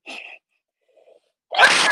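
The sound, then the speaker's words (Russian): A short breathy lead-in and a pause, then one loud sneeze bursting out forcefully near the end, with no talking around it. “Будь здоров.”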